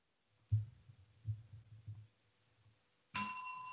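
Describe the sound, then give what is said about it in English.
After a few soft low thumps, a bright bell rings out loudly once and keeps ringing, its clear metallic tone holding steady to the end. “give me another good bell there.”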